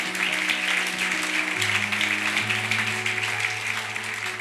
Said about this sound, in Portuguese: Então dá uma salva de palmas a Jesus.